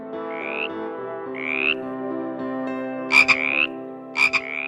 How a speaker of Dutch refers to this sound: Kikkers willen niks liever dan kwakende kikker zijn.